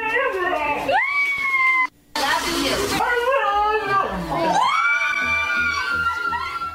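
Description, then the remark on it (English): A dog yowls in drawn-out, warbling moans that mimic the rise and fall of the phrase "I love you", repeated a few times, with a brief noisy burst between them. The dog was taught to say it by its owner, a woman in Massachusetts. “taught her dog to say "I love you" Don't believe me?”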